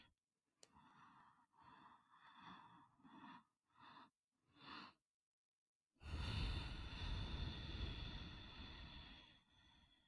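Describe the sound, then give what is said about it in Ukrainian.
A series of short, audible breaths, followed by a long, heavy, rushing exhale that lasts several seconds, with no talking, during a guided breathing exercise. “І давай ми доведемо це дихання, аж допоки ми не будемо вдихати до 10.”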